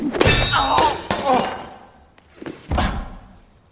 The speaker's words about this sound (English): I love how rich the um, the sound effects are. The the foley sound effects of the of the wrench hitting him in the face.